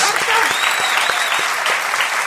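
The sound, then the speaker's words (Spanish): A big burst of audience applause at Caras y Caretas, an ovation greeting Patricio Barton, dense steady clapping from a crowd that stays loud and even throughout, with a few sharper individual claps standing out. “Vamos a saludar inmediatamente con una gran ovación a Patricio Barton.”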